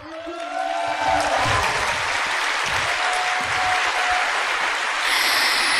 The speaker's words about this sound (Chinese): 三月份我来过，有多少是我们见过的朋友呢？为我们再次的见面来一个热烈的掌声好吗？